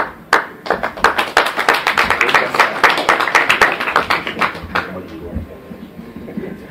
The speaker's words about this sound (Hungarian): Taps kezdő ember. Mindig szerettem volna tapsot kezdeni azok a Kétszer sikerült eddig életemben.